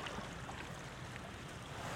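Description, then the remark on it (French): Small sea waves lap steadily at the water's edge as the tide goes out, a continuous wash of water with faint harbor ambience and no voices. “la mer qui descend, les mouettes, les bateaux, le ruissement de, l'eau qui, qui part les petites vagues, les petites vagues.”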